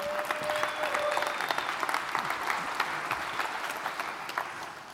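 An audience applauds steadily for several seconds, a dense wash of many hands clapping at once, sustained and fairly loud, with no speech over it.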